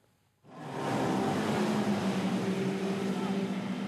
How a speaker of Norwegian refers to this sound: I omkring 70 knop, eller opp mot 130 km i timen, suser vannskuteren over sjøen utafor Kragerø.